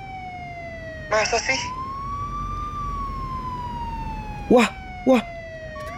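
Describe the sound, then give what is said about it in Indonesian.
The siren of a Trantib public order enforcement patrol vehicle wails steadily throughout, its tone slowly rising and then sliding back down, while a few short spoken exclamations break in over it. “Itu suara sirine tahu.”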